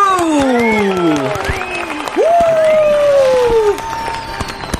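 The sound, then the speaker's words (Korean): Studio applause on a Korean radio show celebrating a singer's first solo album, a dense patter of many hands clapping steadily for about five seconds, with high gliding whoops and whistle-like cries rising over the clapping. “박수!”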